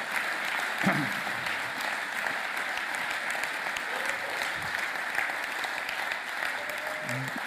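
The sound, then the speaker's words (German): A crowd claps steadily and continuously for the Dreamteam volunteers in Frankfurt and Wiesbaden, who stand up, a dense, even wash of applause that holds its level throughout, with faint scattered voices beneath it. “Ihr kriegt einen richtigen Applaus.”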